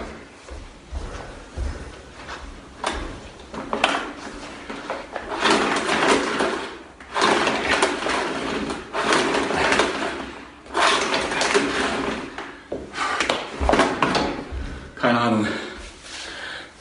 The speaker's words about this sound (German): Aber ich krieg den Staubsauger, kriege ich nicht an. Und damit du mir das glaubst, äh, zeige ich dir das mal.